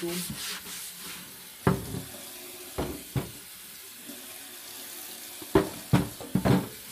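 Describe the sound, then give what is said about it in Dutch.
A glass jar is rinsed under a steadily running tap, the water hissing throughout while the jar knocks and clinks against the sink several times at irregular moments. “Gewoon even snel onder stromend water op”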